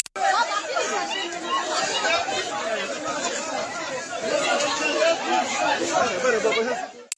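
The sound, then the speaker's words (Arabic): A dense, noisy crowd of people scrambling and fighting over sugar chatters and shouts all at once, a continuous loud babble of many overlapping voices with no single speaker standing out, sustained for several seconds. “اسمعوا الصوت قداش فيه إزعاج وتلوث سمعي”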